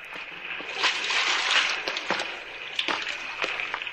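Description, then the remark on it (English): Someone wades through a shallow underground river, feet sloshing and splashing in an uneven rhythm over a steady rushing wash, moderately loud, with no talking. “Come on in, sailor. The water's fine. Shallow, too.”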